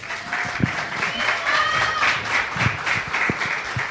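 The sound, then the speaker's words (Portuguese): Steady applause from a crowd for Chico Gabriel, thanking him for new jingles, with dense, continuous clapping that holds at an even loudness, and faint high whistles or cheers rising over it, with no one talking. “Salve de palmas, já salve de palmas pro Chico Gabriel.”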